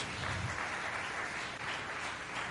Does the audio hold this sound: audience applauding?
yes